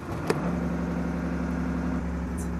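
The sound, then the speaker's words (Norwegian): A 34-foot motorboat's engine idles with a steady, low rumbling drone, its even hum holding constant throughout, with one brief click near the start. “Da brummer den fint.”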